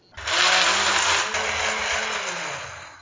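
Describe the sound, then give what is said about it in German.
A blender whirs loudly and steadily for about three seconds, a dense motor roar with a low hum, pureeing red cabbage, with no talking. “Ich würde jetzt mal pürieren.”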